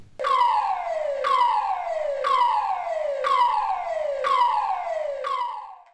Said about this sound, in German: Wir haben bei uns verschiedene Alarmtöne und äh, quasi hast du dich bei uns reingeschlichen und einen davon mal aufgenommen.